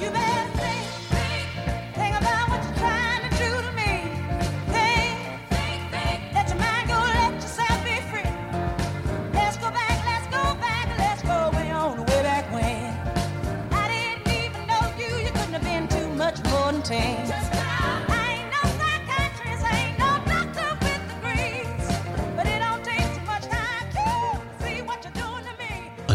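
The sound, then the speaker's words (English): A woman sings soul over a full band, her sharp, trumpet-like voice carrying a soft, raspy growl, a purr, beneath the melody. The music stays steady and fairly loud throughout, with no pauses. “underneath that horn, there's this soft growl, this purr, a sensual, gorgeous undertone that adds so much drama and power.”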